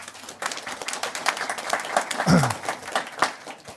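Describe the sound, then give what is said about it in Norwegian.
An audience claps steadily for a few seconds, a dense patter of many hands at a moderate, even level with no voices over it, applauding Julie Wilhelmsen. “Så applaus til Julie Wilhelmsen.”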